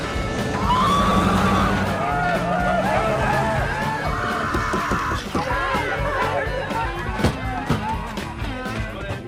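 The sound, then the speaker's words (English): A voice lets out shrill, high-pitched screeching sounds, mimicking a boy's squeal, repeated over several seconds against a busy, noisy background of voices and clatter. “young Shia would do that always made me laugh he has like that screech”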